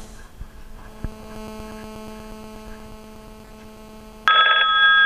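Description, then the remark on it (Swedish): A steady electrical hum, then near the end an IP desk phone's electronic ring suddenly starts, loud, signalling an incoming call placed to it from a mobile phone. “Jag ska nu demonstrera det genom att ringa till den här telefonen ifrån min mobiltelefon.”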